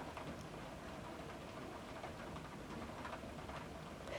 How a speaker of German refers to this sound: Hörst du den Regen?